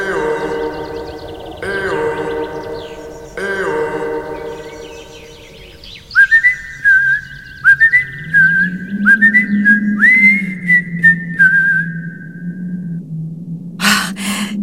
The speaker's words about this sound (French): Quand le soleil pâlissait et que le froid redoublait, alors il sifflait dans ses doigts. Il faut rentrer maintenant.